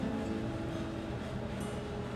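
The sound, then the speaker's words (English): A steady, low air conditioner hum in New York on a hot, muggy day drones on without a break, a constant mechanical rumble with a faint airy hiss on top and no voices. “And if you can hear a, low humming in the background, it is the constant protestation of the air conditioner since it's really hot here and beautifully muggy.”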